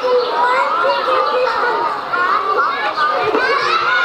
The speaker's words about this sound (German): Kinder, Kinder spielen.